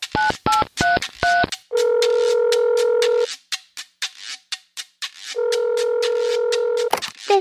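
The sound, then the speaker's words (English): Four quick telephone keypad tones are dialed, then two long, steady ringback tones sound with a pause between them, clear, with no voices. “He picked up the phone.”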